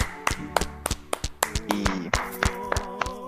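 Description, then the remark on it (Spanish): An audience applauds to send off an Afro-Mexican singer-poet: sharp hand claps fall in a steady, quick rhythm, roughly three per second, over a sustained musical tone with pitched harmonics, like clapping along in time. “Y pues un aplauso, un fuerte aplauso otra vez para despedir al poeta negro afromexicano de la canción.”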